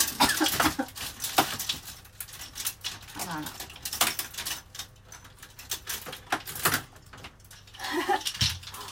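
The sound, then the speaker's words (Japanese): Continuous rustling and crinkling of laundry being handled while doing the washing, with soft thumps and shuffles throughout, while a woman speaks briefly over the noise. “えー、ちょっとガサガサうるさいかも”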